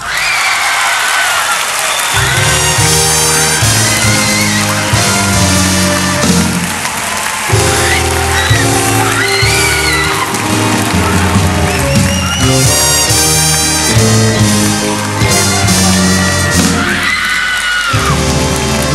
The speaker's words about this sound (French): Venez là, venez là, venez. On peut encore les applaudir fort, s'il vous plaît,